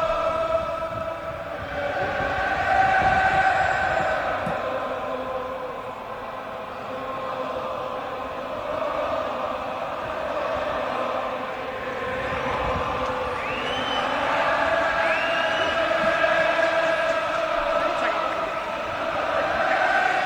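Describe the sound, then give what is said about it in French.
A huge football stadium crowd sings Liverpool's club anthem together in a sustained, swelling chorus, the massed voices blurred by roar and echo, holding steady for the whole stretch with no talking. “vous venez d'entendre l'hymne de Liverpool”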